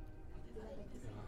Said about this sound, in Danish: Det man kan høre i baggrunden lige nu, det er, det er det publikum, vi har inviteret ind i studiet til at høre de her historier her. Kommet langvejs fra.